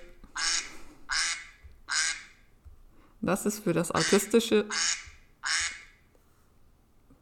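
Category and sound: bird, duck quacking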